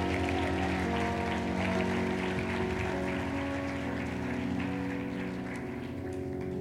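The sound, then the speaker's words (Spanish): A church audience claps steadily and loudly for several seconds for the King of Glory, a dense, continuous wash of applause over sustained keyboard or organ tones, with no one speaking. “Vamos, aplauda al Rey de Gloria.”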